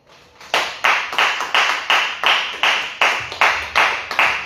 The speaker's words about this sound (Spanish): Palmas a Jesús, hermano.